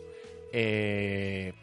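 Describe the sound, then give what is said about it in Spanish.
A single loud, steady telephone ring tone lasts about a second, heard as an outgoing call rings through to reconnect a caller whose call dropped, with a fainter tonal hum just before it and no talking. “Eh, eh, ya lo estamos llamando, disculpen el ruido del teléfono, pero estamos llamando”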